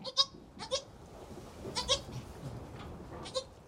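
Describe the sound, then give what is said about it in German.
Several young goats bleat in short, high, wavering calls, overlapping, with a couple of bursts clustered together and others trailing off, over a faint background rumble. “Den etwas älteren Zicklein bringe ich bei, immer zu sechst an einem Eimer mit sechs Nuckeln zu trinken.”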